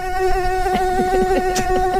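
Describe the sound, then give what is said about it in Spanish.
A fly buzzes in a steady, continuous whining drone that holds a constant pitch for the whole two seconds, with faint soft thumps underneath. “Ustedes se suben, ven una mosca y se distraen.”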